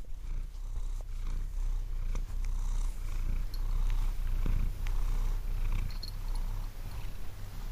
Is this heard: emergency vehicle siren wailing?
no